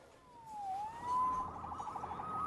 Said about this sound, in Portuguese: Salvo pela Sirene.